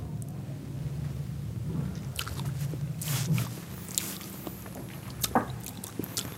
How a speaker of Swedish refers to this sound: Ska vi smutta? Ja, det tycker jag vi ska göra. Ja, det gör vi. Mm. Skål.